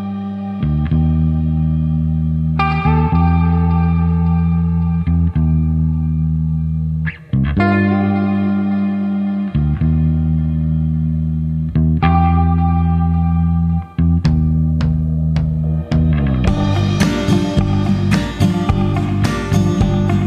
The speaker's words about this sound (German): während wir am Wandern sind, hören wir ein bisschen Musik im Podcast